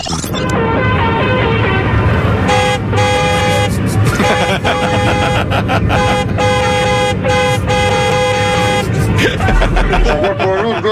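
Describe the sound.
Loud, continuous car horns blare in traffic, overlapping blasts that shift in pitch almost like a tune, with a low rumble of engines underneath and faint voices mixed in.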